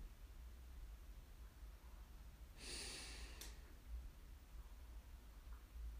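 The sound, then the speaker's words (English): A single deep, airy breath drawn in during meditation, lasting under a second and ending in a brief puff, with quiet stillness on either side and no talking. “I breathe and I allow it in.”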